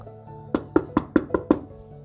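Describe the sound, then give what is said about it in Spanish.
Six quick, evenly spaced knocks on a wooden door, fairly loud, in a steady rhythm, as two brothers knock at their brother's door. A faint low hum stays under the knocks, and nobody speaks. “Los hermanos desesperados huyeron a gran velocidad y llamaron a la puerta de su hermano.”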